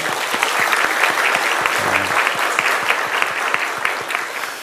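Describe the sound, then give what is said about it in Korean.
An audience claps steadily for several seconds, a round of applause offered to God after praise singing, a dense, even wash of many hands with no one speaking over it. “우리 찬양을 통하여서 영광 받으실 우리 하나님 앞에 귀한 영광의 박수 올려드립니다.”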